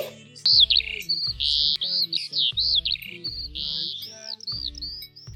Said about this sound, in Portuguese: É gorjeio de pássaro, será um bem te vi